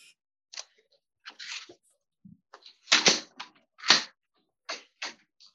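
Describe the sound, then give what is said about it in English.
A hotel room door is unlatched and opened to hang a do not disturb sign, with a string of short clicks, rattles and thumps from the handle and latch spread over several seconds, and no talking. “And then I realized I didn't put the do not disturb sign up, so I put that out.”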